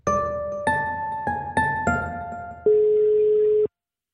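Electronic telephone tones of an outgoing call to a local journalist: five quick beeps at shifting pitches, then one steady, longer tone that cuts off abruptly. Clear, with no voices.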